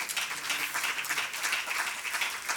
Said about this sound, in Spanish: Den un aplauso al Señor en esta hora.